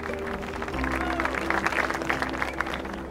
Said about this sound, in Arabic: وتمايلت الجموع الحشيدة مع أنغام الأغنية الجميلة وما أن انتهت جل نار من الغناء حتى ارتفع التصفيق لموهبتها الفريدة